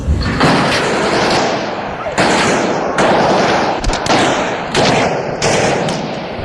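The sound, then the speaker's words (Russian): A string of loud, sharp gunshots, fired into the air several times by armed men who have burst into a parliament building, crackles out at irregular intervals, each blast ringing into a dense, roaring wash of noise before the next one hits. “Ворвавшиеся несколько раз стреляют в воздух, требуют отключить все мобильные телефоны, у кого они есть, а после заявляют, что это государственный переворот”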